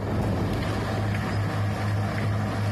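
A small tractor's engine, dragging a very large chain at its rear to knock down native vegetation, drones steadily and continuously, its low rumbling hum holding at an even, fairly loud level with a rough, noisy wash on top and no voices.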